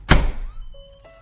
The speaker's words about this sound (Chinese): 下一刻，小美房间的门把开始震动起来。